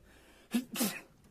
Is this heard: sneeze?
yes